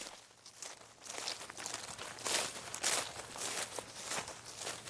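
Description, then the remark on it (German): Footsteps crunch through dry forest leaves in a steady walking rhythm, each step a bright, crackling rustle that swells and fades, with no voices over it. “Eine Erkundungstour durch den Wald ist vor allem eins. Ein krachender Auftritt.”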